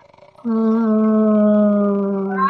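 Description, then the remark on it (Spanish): A voice imitates a loud, ghostly wailing lament: a single long, steady moaning tone that holds for about two seconds, its pitch sagging slightly before a brief lift at the end. “fue que de la nada se empezó a escuchar así un lamento, pero fuertísimo.”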